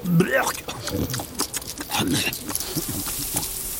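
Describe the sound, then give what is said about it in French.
A hedgehog on a dirt path snuffles and chews, with wet smacking, crunching and rustling sounds in irregular bursts as it plunges its snout into fresh cow dung and eats the insects in it. “Il est trop occupé à manger, il ne l'a pas vu.”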